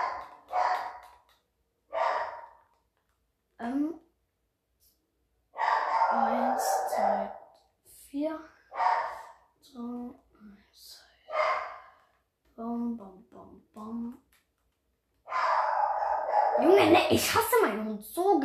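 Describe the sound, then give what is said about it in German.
A dog barks in a series of irregular, loud bursts, with panting or breathy sounds and a voice mixed in between the barks. “wisst ihr nicht, wie krank dieser Hund.”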